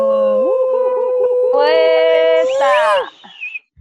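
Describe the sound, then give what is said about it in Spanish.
A self-described professional siren imitator imitates a siren with a loud, sustained wail that climbs in pitch, holds steady, then rises and wavers before dropping off, lasting about three seconds with no talking. “Re sirena, pues tengo una habilidad que soy imitador profesional de sirena.”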